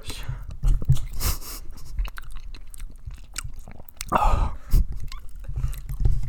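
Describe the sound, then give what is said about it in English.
Close-up wet chewing of a first bite of soft, creamy burrata cheese, with moist squishing and smacking sounds repeating irregularly over several seconds, right next to the microphone. “Get you chewing on it.”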